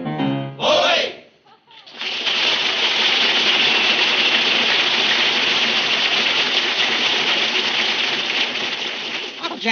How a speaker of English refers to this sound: ship goes sailing away across the ocean to Managua, Nicaragua.